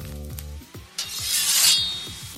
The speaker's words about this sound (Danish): Den kender vi, så er der jo selvfølgelig også den her lyd. Lighteren, der tænder noget.